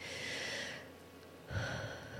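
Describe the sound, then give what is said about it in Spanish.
A slow, deep breath drawn in, a soft airy rush that pauses briefly, then resumes with a fuller, slightly louder breath. No one speaks. “Simplemente es detenerte, tomas una respiración profunda y decís, yo soy”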